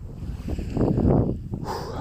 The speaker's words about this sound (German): der Wind bläst mir ins Gesicht, reinigt meine Synapsen von all den schlumpfigen Dingen